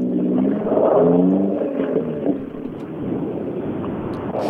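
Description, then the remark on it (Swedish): A car engine revs loudly, its pitch climbing and dipping over a few seconds before settling into a rougher, steady rumble with some wind noise. “Jaha, det är lite så att du ska öka lite.”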